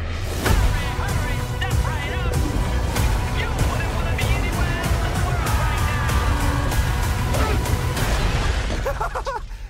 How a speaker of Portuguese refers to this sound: Eu joguei um caminhão num dragão.